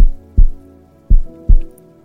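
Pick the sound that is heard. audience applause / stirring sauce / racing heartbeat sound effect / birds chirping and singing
racing heartbeat sound effect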